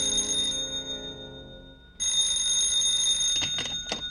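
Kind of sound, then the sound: signal or alarm, telephone bell ringing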